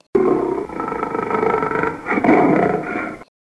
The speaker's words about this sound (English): It moved. It was a lion.